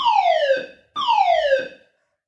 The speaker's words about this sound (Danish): så gik brandalarmen lige. Ja. Og jeg blev lidt panisk.